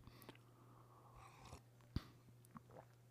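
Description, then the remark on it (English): Someone quietly sips coffee, with faint mouth and swallowing noises, a single sharper knock midway and a few soft clicks over a steady low hum. No one speaks. “Have a sip of coffee first.”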